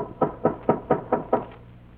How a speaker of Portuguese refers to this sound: Tudo ia muito bem até certa noite em que Dona Maria Luísa, já deitada, ouviu que lhe batiam à porta.